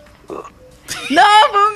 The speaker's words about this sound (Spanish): Bueno. se le salió el erupto.